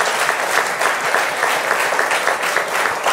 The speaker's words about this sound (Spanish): Si le vas a dar el aplauso, ay Padre.